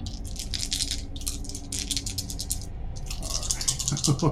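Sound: dice being rolled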